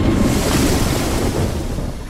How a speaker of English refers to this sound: I'll put an end to them with this burst of water! I'll drown them! Panicking, Piaten blasted the toads and frogs with water.